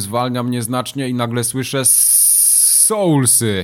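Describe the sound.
A man talks, then his voice stretches into a loud, drawn-out hissing 'sss' for about a second, imitating a hiss, before the speech picks up again.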